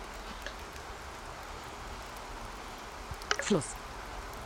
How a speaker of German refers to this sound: Au Regen.